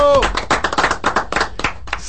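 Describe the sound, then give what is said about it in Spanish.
Brisk applause for the Dominican national football team's 5-0 win over Barbados in the Nations League: a burst of hand claps in a fast, uneven rhythm lasting about two seconds, opening with a short shouted voice before the clapping carries on alone. “Y vale un aplauso, mis hermanos.”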